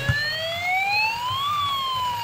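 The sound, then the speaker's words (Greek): A police siren wails, its tone sweeping slowly upward then starting back down in a long, steady glide, loud and alone over a low background rumble, with no voices. “Συναγερμός fake.”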